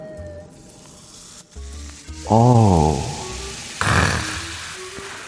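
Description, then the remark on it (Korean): Fizzy cola pours into a cup, a loud gurgling stream rising in pitch as it fills, wrapped in crackling carbonated hiss, then a second shorter fizzy burst. A brief vocal murmur. “자, 이어서 제가 먹기 위해서 좀 컵에 좀 따라 볼게요, 여러분들.”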